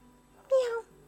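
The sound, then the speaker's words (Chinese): A single short meow from a black kitten, high-pitched and tonal, lasting about a third of a second with a slight bend in pitch, standing out clearly against a quiet background. “你叫什么名字？喵”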